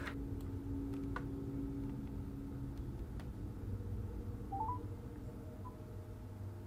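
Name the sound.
telephone dialing a number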